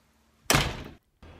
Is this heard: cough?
no